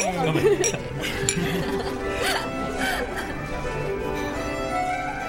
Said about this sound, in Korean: 자, 다들 마실까요? 네. 건배.